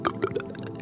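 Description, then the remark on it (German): A brief pour of milk into a jug: a few quick glugs and splashes of liquid lasting under a second, with no voices. “Dann gieß jetzt den ersten Schluck Milch in den Krug.”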